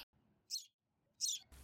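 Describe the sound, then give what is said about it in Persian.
Two short, bright chirps from a baby sparrow among leaves ring out about half a second apart, high-pitched, with quiet low background rumble between them. “این صدای گنجیشکی که میاد بریم ببینیم صدا از کجا میاد اه لای برگا رو ببین این چیه این یه بچه گنجیشکه”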